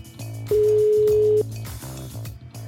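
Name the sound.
telephone ringing tone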